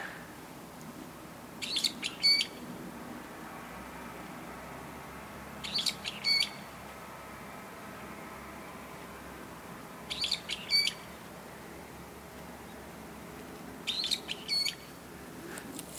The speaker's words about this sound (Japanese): 今木の枝のところで鳥が鳴いてるんですけども鳴きながら糞をしましたね